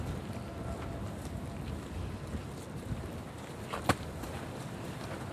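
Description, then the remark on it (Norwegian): Steady wind rushes and rumbles through the ruins and scaffolding of the old monastery church on Tautra in the evening, a continuous low roar without pauses, broken once by a single sharp knock near the end. No voices are heard. “oppsøker vi også på Tautra de flotte ruinene som står igjen fra den imponerende klosterkirken og musikken her er vinden som feier gjennom ruiner og stillaser.”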